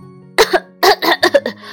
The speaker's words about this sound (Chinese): 于是，他们一起去找到了扇贝。扇贝咳嗽了一声